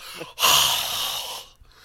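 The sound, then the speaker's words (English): A person breathes out forcefully into someone's face, a single breathy whoosh lasting about a second, preceded by a quick short inhale, with no talking. “just breathe I in your i'll breathe in your face”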